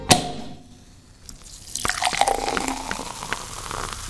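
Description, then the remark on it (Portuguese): Champagne is poured into a glass at a house in São Paulo: a short sharp tap, a brief lull, then a steady fizzing gurgle whose pitch creeps upward as the glass fills. No voices. “onde fomos recepcionados com o champanhe que a filha,”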